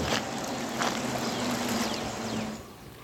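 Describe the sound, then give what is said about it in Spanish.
A full, swollen arroyo rushes steadily past after heavy rain, on the way to Tezopaco around 7 on a Sunday morning, its broad watery roar continuous for the whole stretch, with no voices over it. “qué chulada de arroyo lo que lleva de agua.”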